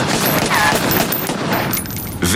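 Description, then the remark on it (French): A loud, sustained burst of gunfire, with many sharp shots firing in rapid succession and blurring into a dense, crackling barrage before a brief vocal sound at the very end. “Il a fallu que tu tires.”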